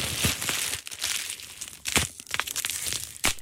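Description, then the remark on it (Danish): Large-bubble wrap, the kind used as packing in boxes sent by post, being squeezed: a steady crinkly plastic crackling broken by several sharper, louder crunches at irregular moments. No one speaks. “Det er jo storebroren til de små bobleplast, det her.”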